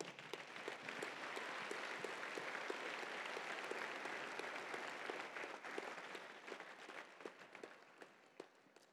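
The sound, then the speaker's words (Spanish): An audience at a church service applauds the Lord steadily, a dense wash of many hands clapping at an even, loud level that holds for several seconds before thinning out into scattered claps near the end. “¿Por qué no le otro aplauso fuerte al Señor?”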